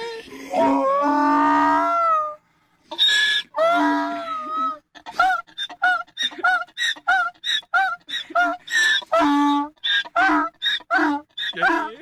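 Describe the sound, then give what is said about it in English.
A donkey brays loudly and excitedly to its master, who has returned after two months, starting with two long wavering cries, then breaking into a rapid, rhythmic series of wheezing hee-haw gasps. “Here's the sound of a donkey excitedly crying to a, its master that has been returned after two months.”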